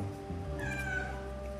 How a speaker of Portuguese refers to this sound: Romeu é o meu gato. E sempre, sempre você vai ouvir ele miando por aqui.